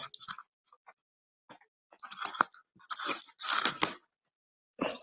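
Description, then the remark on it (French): A microphone is handled and moved to a new position, giving loud bursts of crackling, rubbing and scraping in an irregular run, with short silent gaps and no talking. “Euh, Attendez, on va peut-être changer le micro de.”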